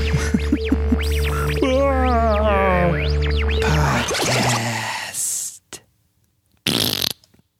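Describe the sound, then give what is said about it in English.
Loud fart sound effects, buzzy and wobbling with pitch that swoops up and down, run together for several seconds before two short hissy bursts separated by silence. “All right, I want to get on to the next final subject of Dilligaff, but I love these weenie in the butt like sound effects.”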